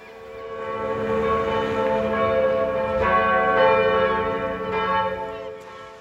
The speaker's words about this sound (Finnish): Barentsinmeren rannalla soivat Kirkkoniemen kirkon kellot. Moni täällä pienessä Pohjois-Norjan satamakaupungissa Venäjän rajalla miettii, kenelle kellot soivat, kun Venäjä hyökkäsi Ukrainaan.